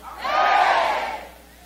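A crowd of voices shouts 'amen' together in one loud, sustained collective cry that swells quickly and fades over about a second.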